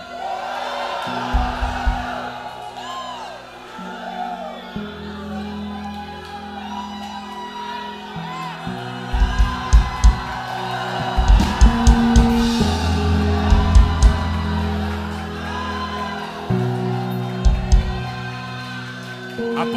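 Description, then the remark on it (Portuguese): A large crowd shouts and cheers together in response to a preacher's call to shout, voices overlapping in a sustained roar while heavy, deep thumps punch through at irregular intervals. “Dá um grito, dá um brado.”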